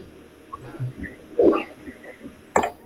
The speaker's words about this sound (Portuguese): ele engasga um pouco, tosse um pouco.